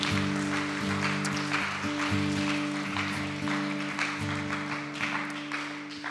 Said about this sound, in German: Ihr dürft trotzdem einmal Jesus einen Applaus geben, ein bisschen Stimmung hier reinkriegen.